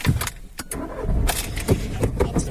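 A seatbelt being pulled out and buckled inside a carsharing car: a series of sharp clicks and light metallic rattles, scattered irregularly over a low, steady interior rumble.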